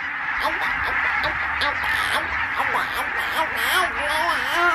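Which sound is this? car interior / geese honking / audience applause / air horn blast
geese honking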